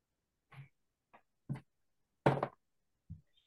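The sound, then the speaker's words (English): A pair of eyeglasses, knocked off by a person, clatters onto a hard surface in a quick series of light knocks and taps, the loudest rattling in the middle, with no talking. “I knocked off my glasses.”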